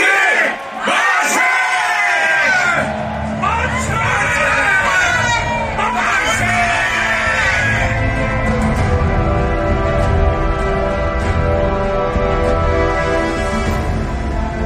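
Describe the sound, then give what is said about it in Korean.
A large crowd of protesters in Gwangju shouts and cheers 'Daehan dongnip manse!' for Korean independence in unison, loud rhythmic collective yells rising in waves, then settling into a sustained roar of many voices that continues to the end. “다들 만세를 외치면서 따라오시오.”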